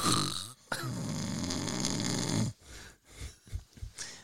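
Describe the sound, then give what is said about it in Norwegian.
A person loudly imitates snoring: one long, rattling, drawn-out snore, followed by a few short snorting breaths and grunts. “Sover du?”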